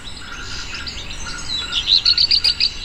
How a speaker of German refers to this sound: Das ist der Gesang vom Hausrotschwanz. Also der singt ganz oft morgens früh, wenn es noch gar nicht wirklich hell ist schon.